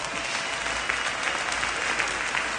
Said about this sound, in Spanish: Denles un aplauso a sus esposas, por favor.